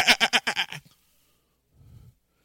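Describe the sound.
A man's voice imitates a sheep, letting out a loud, quavering "baa" with a rapid wobble, followed after a pause by a brief, much fainter low grunt.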